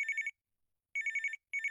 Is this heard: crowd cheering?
no